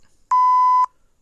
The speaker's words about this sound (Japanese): あ、これはあれか、なんか言っちゃいけない言葉を言う時のやつかな。